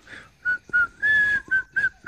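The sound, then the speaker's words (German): A melodic whistled tune in short, separated phrases, each a clear tone rising and falling, about seven notes over two seconds, moderately loud with a slightly distant, roomy quality. “Du hörst in der Ferne ein Pfeifen, das dir noch unbekannt ist.”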